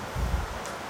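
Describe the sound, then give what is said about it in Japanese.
Steady rain pours down in a dense, continuous hiss with no voices, and a brief low rumble swells in the first half before the even wash of rainfall carries on. “でも今この雨の状態の音聞いてくれればわかるよね”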